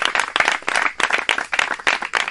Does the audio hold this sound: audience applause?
yes